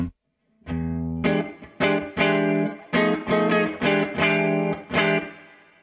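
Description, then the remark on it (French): An electric guitar on the neck pickup, played through a Woodrow tweed amp pedal with clean settings, strums a run of chords in a steady rhythm, each one ringing out briefly before the next attack, played alone and fairly loud. “Là on va être assez clean et on va voir ce que ça donne. Là je suis sur le micro-manche.”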